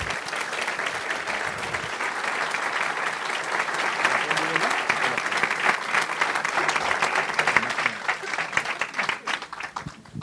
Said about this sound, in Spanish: quiero pedirles un favor si me acompañan a recibir con un fuerte aplauso